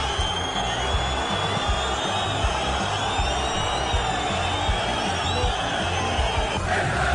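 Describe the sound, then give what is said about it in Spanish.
A large stadium crowd at Rayo Vallecano's presentation of Radamel Falcao keeps up a steady roar for several seconds, and many shrill whistles ring out over the noise, aimed at club president Raúl Martín Presa. The whistling holds fairly constant and loud throughout, with no talking heard. “Sí, chiflaron al presidente.”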